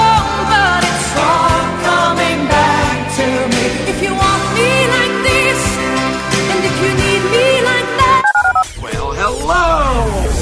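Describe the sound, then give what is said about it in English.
A rapid string of telephone keypad dialing tones beeps loudly, layered over a busy musical bed, then gives way to swooping electronic sounds near the end. “To call into the HRNP listener line, dial 713-780-ESPN. Dial the phone.”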